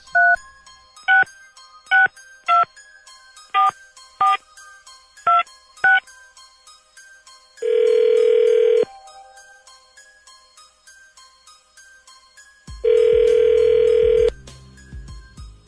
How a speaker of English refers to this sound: Some dialing music, please.